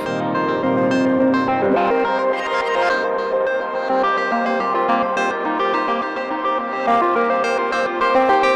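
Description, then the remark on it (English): A synth line run through a glitch effect whose bend is tuned to an interval, bending its pitch an octave down, producing stuttering, stepped, echoing tones at a steady, fairly loud level throughout, with no voices. “So yeah, you can tune the bend to be an interval. So this is an octave down.”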